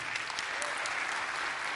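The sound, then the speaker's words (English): An audience claps steadily for a couple of seconds for the leader of the women's ministries as she is brought up, a dense, even wash of many hands with no pauses or standout claps. “So you can give her a round of applause.”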